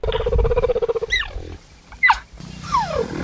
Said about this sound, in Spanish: Miau. Miau, ¿qué? Guepardo. Pero tú eres un crack, ah, ¿cómo has sabido que es un quepardo?